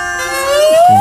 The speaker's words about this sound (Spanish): Es, un serrucho flexible eh.